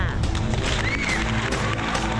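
A crowd claps steadily to welcome a woman from Nantong, Jiangsu onto the show. It is a dense crackling wash of applause that holds at an even loudness for a couple of seconds, with a faint sustained musical tone underneath.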